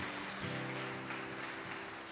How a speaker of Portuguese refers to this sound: Vamos aplaudir o Senhor, queridos. Glória a Deus.